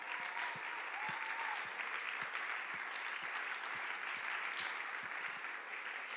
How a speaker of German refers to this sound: Und ja, lasst heute einfach uns allen, lasst uns in Schaumburg und in Wunsdorf nochmal einen riesen Applaus zur Ehre Gottes geben für diesen Tag und diese Taufe heute. Yes!